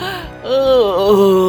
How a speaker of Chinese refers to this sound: 这样的动作当然就惊动了这个巨人了。巨人如梦初醒的打了一个哈欠